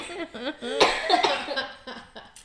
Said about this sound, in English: Stop coughing. I'm just kidding.